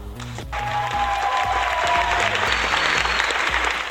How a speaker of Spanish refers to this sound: Todos los presentes, incluidos mi mamá y mi papá, se pusieron de pie y aplaudieron orgullosos al grito de ¡Bravo, Guppy! ¡Bravo!